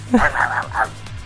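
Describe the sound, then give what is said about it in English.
A person imitates a dog, letting out a quick string of two or three yappy, barking woofs, loud against a low background hum. “I just don't know why I barked like that.”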